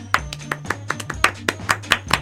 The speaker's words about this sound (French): vous avez entendu dans les claps, les claquements de mains